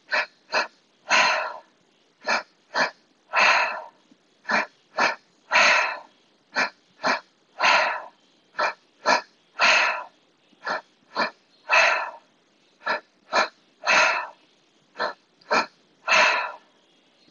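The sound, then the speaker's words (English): Rapid, rhythmic breathing, demonstrated by drawing air into the lower belly and chest and out through the mouth, loud: quick sharp inhales paired with longer, fuller exhales, repeating steadily about twice a second with no talking. “So it's into the lower belly, into the chest, and out through the mouth. And all of this is done through the mouth.”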